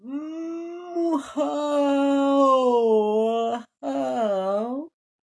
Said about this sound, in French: Tu vois, je te l'avais dit, si tu bailles, t'es fichu.